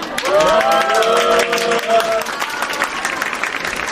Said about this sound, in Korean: 오늘 특별히 안진대학교까지 오셔서 좋은 강의해 주셔서 감사합니다. 자, 번역가님께 다시 한번 박수 부탁드립니다.